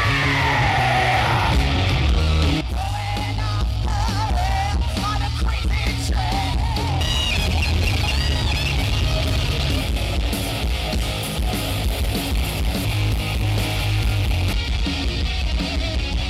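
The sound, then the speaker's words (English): A loud, dense roar of many voices screaming and yelling together at a tribute night, sustained and unbroken for the whole stretch, with scattered higher shouts cutting through the wall of noise. “Let's hear it for Lemmy! Scream for Lemmy!”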